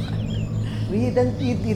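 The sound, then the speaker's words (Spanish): Small birds chirp and twitter in short, sweeping calls over a steady low background hum, with a brief murmur of voices underneath. “todo esto es esperanza, estos pajaritos y todo está”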